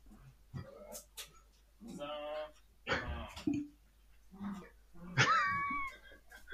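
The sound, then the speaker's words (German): Dogs whine, yelp and growl in excited bursts, with high wavering whimpers and a sharp squeal near the end, the noisy rough-and-tumble of a playful scuffle. “Nee, ich meine, die machen so, als ob die Welt untergeht, dabei spielen die nur.”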